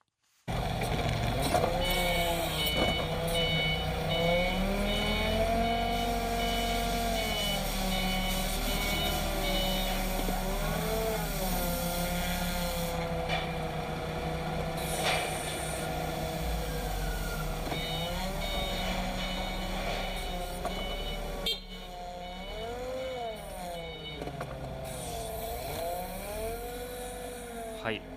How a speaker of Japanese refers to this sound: 5時はまだ仕事中です工場でフォークリフトを使って大きな製品をラックに入れている音が私の夕方5時の日常です